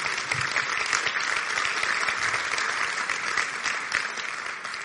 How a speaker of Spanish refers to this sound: Un aplauso bien fuerte.